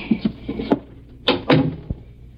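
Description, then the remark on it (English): Metallic clicks and rattles, like a key working the lock of a room door on the upper floor of a duplex, followed by the creak and shuffle of the door swinging open and a short dull thump near the end. “I always keep the door locked.”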